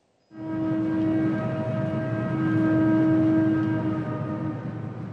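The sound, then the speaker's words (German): A long freight train loaded with iron ore rumbles loudly and steadily through the desert of Mauritania, a drawn-out horn blast sounding over the heavy grinding of the cars, with no voices. “Irgendwann taucht in der Wüste Mauretaniens ein ewig langer Zug auf. Geladen hat er Eisenerz, eines der wenigen Reichtümer dieses armen Landes.”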